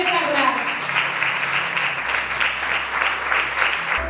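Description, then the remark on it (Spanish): A crowd applauds the contestants at the first edition of the Twister RNB Barcelona event, a dense wash of many hands clapping at an even loudness throughout, with a low hum underneath and no distinct individual claps standing out. “Antes que nada, quiero pedir un fuerte aplauso para estos chicos concursantes que se han unido a este país”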